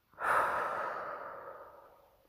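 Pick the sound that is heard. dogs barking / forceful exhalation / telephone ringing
forceful exhalation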